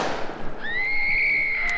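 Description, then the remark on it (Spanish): A sharp, booming blast rings out and decays, then a piercing, steady high-pitched scream rises and holds for over a second. There is no talking. “Entonces, cuando abrían, escuchaba gritos y disparos.”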